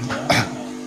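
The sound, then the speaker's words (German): A coffee machine hums steadily, a low droning tone with faint overtones, broken by a brief, louder burst of noise partway through. “Kaffeemaschine meldet sich auch zu Wort.”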